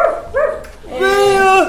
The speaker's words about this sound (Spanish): perro.